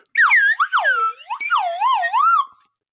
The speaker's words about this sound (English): Podcast is officially authorized to use a slide whistle for sonic fun.